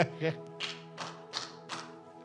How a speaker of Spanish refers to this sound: me aplaudo a mí mismo.